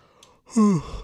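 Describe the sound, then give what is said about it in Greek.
A single drawn-out yawn, fairly loud, rising from a breathy intake into a voiced sound whose pitch slides downward before trailing off into soft breath. “Χασμουριέμαι γιατί μην το κάνετε αυτό αν γερνάτε.”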